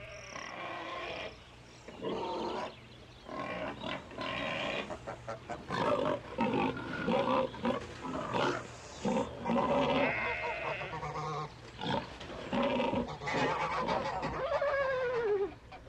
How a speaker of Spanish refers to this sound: Apenas se hubo apagado la luz del dormitorio, empezó el alboroto en toda la granja.